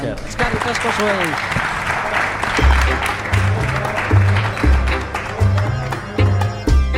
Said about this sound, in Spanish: Un aplauso muy grande para ellos.